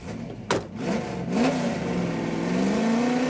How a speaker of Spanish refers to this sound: Raimundo acelera a 180 kilómetros por hora y El auto choca contra un poste en Paseo de la Reforma en Ciudad de México y se parte en dos.